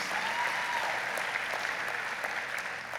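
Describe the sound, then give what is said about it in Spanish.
A church audience applauds to encourage everyone to come and join them in person, a dense wash of many hands clapping at an even, sustained level with no voices standing out. “Un aplauso para que se animen todos a venir y acompañarnos en estos días.”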